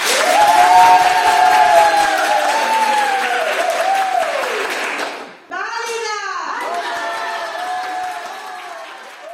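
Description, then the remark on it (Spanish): An audience claps and cheers steadily for about nine seconds, loud dense applause with rising and falling whoops over it, briefly dipping midway before surging back. “¡Aplauso!”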